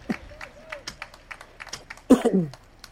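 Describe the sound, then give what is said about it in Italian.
Scattered, irregular handclaps from a few members of the bench of the French side Lille during a football match, fairly faint, with a brief loud shout breaking in near the end. “Applausi da parte, credo, dei componenti della panchina della formazione francese.”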